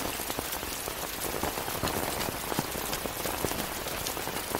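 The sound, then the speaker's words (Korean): Steady rain pours down onto a school sports ground, a dense continuous hiss dotted with sharp individual drop impacts, fairly loud, with no voices. “부임 첫날부터 그녀는 비 오는 운동장에 우두커니 서 있는 한 여학생을 발견했습니다.”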